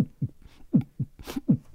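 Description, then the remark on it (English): Low, muffled heartbeat thumps in steady lub-dub pairs, three doubled beats in quick succession, with a soft breathy rush between the second and third pair. “Um, your hand, the diamond, you feel your heartbeat like,”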